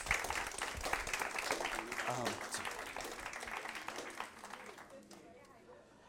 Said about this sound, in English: I think you guys can take a seat. We should give all of them a round of applause.